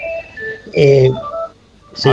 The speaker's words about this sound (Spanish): Eh, es un teléfono de línea que está sonando.